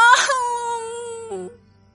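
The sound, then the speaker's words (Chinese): A voice imitates a baby mole crying sadly for its teddy bear: one long, high, wavering wail that slowly sinks in pitch, breaks briefly near the end, then fades to quiet. No words are spoken. “鼹鼠宝宝伤心的哭着。”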